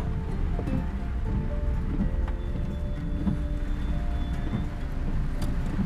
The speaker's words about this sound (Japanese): ちょっと今運転をし始めましたあーめっちゃ雨だわ